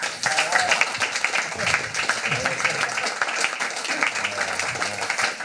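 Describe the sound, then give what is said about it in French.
An audience applauds in a dense, steady wash of clapping that holds at an even loudness for about five seconds, with a few voices mixed into the crowd noise. “Ben, je pense que ça mérite un bel applaudissement quand même.”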